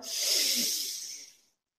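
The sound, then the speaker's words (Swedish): A single deep breath drawn in during a short breathing exercise, an airy, hissing inhale lasting about a second and a half before fading to silence. No one speaks. “Så bara ta ett djupt andetag.”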